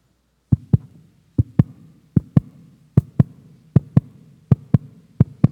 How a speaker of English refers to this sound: So your heart is ticking.